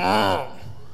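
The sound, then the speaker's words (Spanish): A short, voiced groan of discontent, imitated by a person: one low, resonant grumble lasting about half a second, fairly loud, then trailing off into quiet. “En el diccionario literalmente dice hacer ruidos de descontento.”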